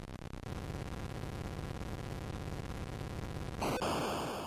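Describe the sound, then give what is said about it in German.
Harsh, buzzy retro video game sound effects from a 1977 Atari 2600 launch game in which players shoot at each other in 2D, in colour, with tanks and planes: a steady low rumbling engine drone, then a sudden louder burst of crackling noise near the end, with no talking. “Und auch da beschießt man sich in 2D und sogar schon in Farbe mit Panzern und Flugzeugen und das klingt so.”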